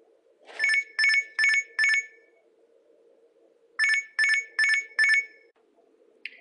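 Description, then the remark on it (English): An alarm clock rings in two bursts of four bright, electronic warbling tones each, evenly spaced with a pause between groups, over a faint steady hum; no one speaks. “She immediately woke up to her alarm clock.”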